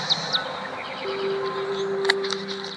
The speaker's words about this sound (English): The birds. Oh. The birds are nice, yeah. The sound of the birds.